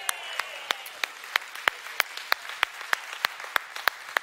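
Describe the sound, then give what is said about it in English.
An audience applauds for Jesus, a dense wash of many hands beneath a steady, evenly spaced clap pattern that keeps a quick rhythm throughout, moderately loud and with no talking. “Anyway, let's hear for Jesus, guys.”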